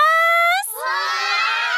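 Loud, lively children shouting and cheering together in the Himawari Kindergarten classroom, opening with one sustained high-pitched call before a dense, overlapping crowd of young voices fills the room.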